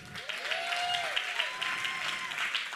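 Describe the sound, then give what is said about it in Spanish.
A crowd applauds steadily for a priest, the administrator of Bayano Caves, a dense wash of many hands clapping at an even, fairly loud level for a few seconds, with a few faint whistles or cheers rising over it. “Un aplauso para Bayano Caves”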